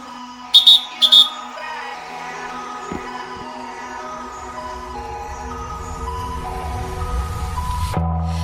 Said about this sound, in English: And may this be the only inadvertent whistle in your day.